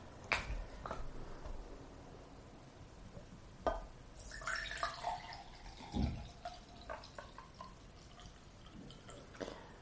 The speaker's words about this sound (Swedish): Då ska jag ta och hälla upp varsitt glas iste.